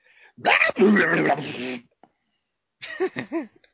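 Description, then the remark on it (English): A person imitates a Tasmanian devil with a loud, raspy, throaty screech lasting over a second, then after a brief pause adds a few short, higher yelping cries. “I can do my actual Tasmanian devil impersonation because I only have like three good ones.”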